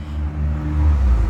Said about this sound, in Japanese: さっきから車が通ってすいません外で撮ってます